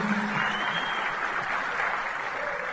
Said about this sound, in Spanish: Entonces, este, un aplauso para el equipo de apoyo, tremendo el equipo de apoyo.